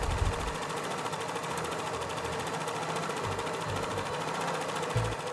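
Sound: sewing machine stitching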